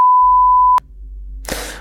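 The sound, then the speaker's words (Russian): A long, steady censorship bleep covering a word in a recited poem, a single loud pure tone held for under a second, cuts off abruptly and gives way to a low hum and then a short burst of hissy noise. “Вы тогда прямо сейчас прочитайте стихотворение, мы запикаем вот это слово.”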